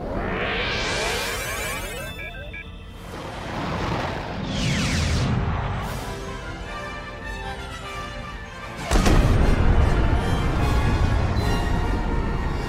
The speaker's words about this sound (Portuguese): Ele conseguiu dar um último tiro antes de ser explodido? A gente precisa de muita sorte para ele ter acertado esse último tiro.